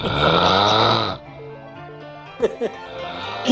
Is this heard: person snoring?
yes